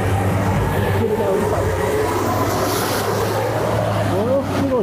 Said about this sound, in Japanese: 今車が通ります。でっかい車の上にショベルカーが乗せてるような、ちょっとレベルが違うデカさで